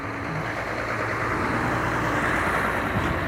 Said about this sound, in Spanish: camión